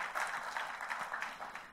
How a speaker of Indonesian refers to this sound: Ayo kita kasih tepuk tangannya yang paling meriah buat Tuhan kita.